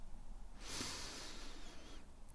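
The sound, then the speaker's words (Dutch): A slow, steady breath drawn in through the nose during a calm seated breathing exercise, a soft airy hiss lasting over a second, quiet with no talking. “Adem rustig in door je neus”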